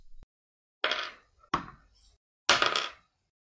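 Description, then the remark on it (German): Dice clatter across a hard tabletop in three separate throws, each a sharp rattling burst that tumbles and settles quickly, with no talking. The dice are being rolled for damage. “Würfel Schaden aus.”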